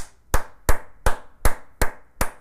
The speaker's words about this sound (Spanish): Un aplauso para ti, papá. Y para ti, mamá.